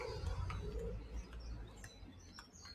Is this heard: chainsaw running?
no